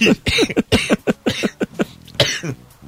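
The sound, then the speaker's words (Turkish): A rapid run of harsh coughs from a person with the flu, about ten bursts in quick succession over a few seconds, loud and rough with a brief pause near the end. “Kusura kalmayın öksürüklerden.”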